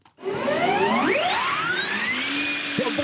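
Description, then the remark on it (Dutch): A Porsche vacuum cleaner starts up, its steady rushing roar joined by a high motor whine that climbs in pitch as it spins up. No one speaks. “Ze gaan in de stofzuigers.”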